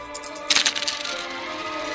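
A large handful of coins dropped from a purse spills onto a table, a bright burst of clinking metal followed by a few scattered jingles and small rattles as they settle, fairly loud with no voices.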